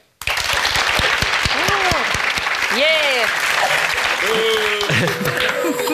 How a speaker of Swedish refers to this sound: Tycker att det ska bara fortsätta som det har varit förr, så applådera nu, varsågod. Det var inte många. Det var inte många.